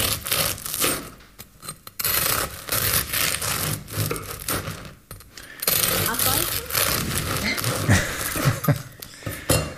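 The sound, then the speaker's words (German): A knife saws back and forth through the crackling crust of a still-steaming wholegrain loaf with seeds, producing loud crackling scrapes in steady strokes with a couple of brief pauses. “Das ist sehr Boah, krachende Kruste. Krachende wie man, Kruste. Boah. Ich krieg's kaum geschnitten.”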